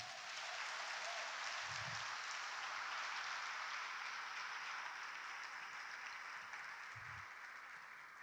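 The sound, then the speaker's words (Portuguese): A large crowd applauds the Lord steadily and loudly for several seconds, a dense continuous wash of clapping hands, with a couple of faint low thumps beneath it. “Aplauda o Senhor por isso.”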